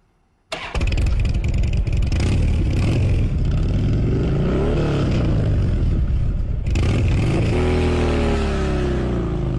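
A motorcycle engine roars to life abruptly and revs loudly, its pitch climbing and falling in repeated throttle bursts, with no voices present.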